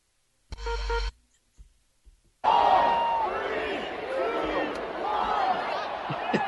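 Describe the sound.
A stadium crowd erupts into loud, sustained cheering and shouting after a short burst of noise and a brief lull, the roar of many voices staying strong to the end.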